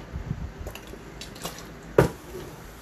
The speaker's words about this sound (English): Oh, water break. Drink water, y'all.